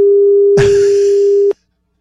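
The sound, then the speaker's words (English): A caller on the Deviney Equipment phone line breathes a single loud, rushing breath into a telephone mouthpiece, lasting about a second over a steady, droning line tone that cuts off abruptly. “Does he realize he's breathing into the phone?”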